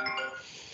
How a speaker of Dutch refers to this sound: Dat is een telefoon. Dat is een telefoontje, dat is echt live.